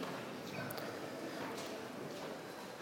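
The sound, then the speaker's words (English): Soft papery rustling as thin Bible pages are flipped to find the Book of Habakkuk, with a couple of brief crisp turns standing out against a faint steady hiss. Quiet, with no voices. “I'm, I just wanted to hear more pages turn while I start reading.”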